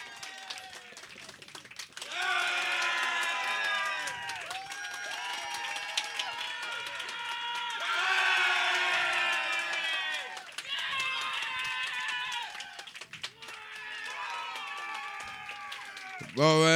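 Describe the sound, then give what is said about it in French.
A crowd claps and cheers, with high whooping and shouting voices rising in repeated bursts over steady applause for about fifteen seconds, swelling loudest near the middle. “Euh, ok, bon, ben, on va refaire une ronde d'applaudissements, tout le monde.”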